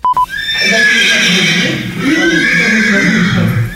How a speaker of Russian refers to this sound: изводил соседей звуками лошадиного ржания. Специально представлял мощные динамики к стенам и полу.